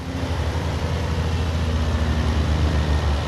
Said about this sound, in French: Les camions défilent sans arrêt à l'entrée du chantier.